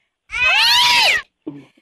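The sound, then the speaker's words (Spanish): A cat lets out one long, loud, drawn-out meow lasting about a second, with a wavering rising-falling pitch, followed by a brief quieter sound just after. “agárrame el gato y juega con él.”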